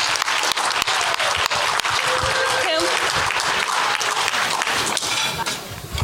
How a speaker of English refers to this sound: Let's give her a round of applause.